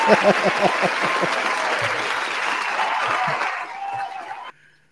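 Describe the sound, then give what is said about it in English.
A played applause sound effect: a burst of crowd applause, dense steady clapping with some cheering that holds for about four and a half seconds before cutting off abruptly. “I'll give him a round of applause.”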